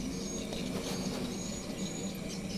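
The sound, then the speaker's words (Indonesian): Swiftlets twitter continuously in the background at the speaker's new home, a faint, dense chatter of many small high-pitched calls over a steady low hum, with no one speaking. “walet gitu burung walet gitu”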